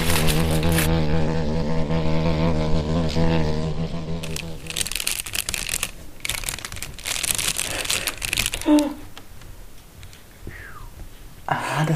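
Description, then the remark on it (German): A low, steady buzzing hum fades out, then shimmering foil crinkles and rustles in irregular bursts for several seconds as it is laid on a table and a wax figure is placed on it, with a few soft pauses between handlings. “Wir legen jetzt wieder die schillernde Folie auf den Tisch und stellen darauf unsere Wachsfigur.”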